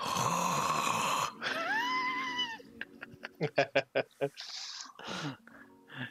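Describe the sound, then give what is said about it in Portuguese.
A person imitates a man's snoring with their voice: a long, drawn-out rasping groan followed by a quick series of short, loud snorting bursts, with no other talk. It is the snoring of Gopal, heard through the door of his room. “E cara, tu consegue ouvir os roncos do homem pela porta, tá ligado?”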